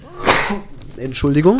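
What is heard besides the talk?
sneeze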